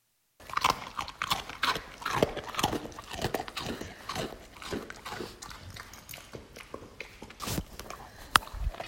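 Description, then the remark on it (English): A dog crunches and chews a hard homemade dog biscuit, with rapid, irregular crackling bites running steadily for several seconds and no talking. “I think your dog will love these. So, you know, don't just take my word for it. Listen to what Freddie says.”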